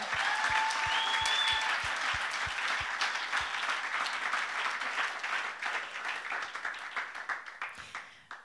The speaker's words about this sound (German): Da wird gejubelt dort hinten. Hey, einen Applaus für dieses Mega-Technik-Team.